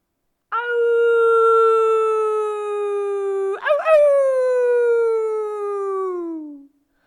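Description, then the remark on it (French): A long, loud howl holds a steady pitch, then a second howl rises sharply and slowly slides downward until it fades, echoing across a plain and between the houses of the town of Vatan. No other sounds or voices. “Les hurlements résonnèrent dans la plaine, rebondissèrent entre les maisons de Vatan, et les habitants, les habitantes furent réveillés d'un bond.”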